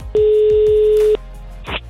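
A loud, steady telephone dialing tone sounds once for about a second over a few low thumps, then cuts off, followed by a brief burst of line noise, as the show Energy Afterwork phones a contest participant.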